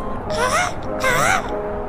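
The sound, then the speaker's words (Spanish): A human voice imitates seagull cries: two loud, wavering, nasal calls in quick succession, each rising and falling in pitch, with a soft background hum. “Cuando quieras estar conmigo, hija, imita a las gaviotas.”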